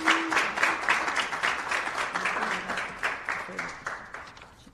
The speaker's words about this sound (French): et je vous demande vraiment d'applaudir euh, ma vice-présidente.